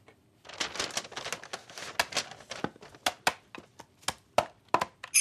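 Crinkly rustling of paper being wrapped around a Christmas present, mixed with sharp, regular thwacks of firewood being chopped that grow more prominent toward the end. No one speaks.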